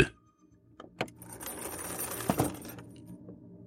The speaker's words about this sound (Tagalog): Mga mabibigat, mababagal, at mahihinang mga yabag na waring may hila-hilang kadenang kumakaskas sa sahig.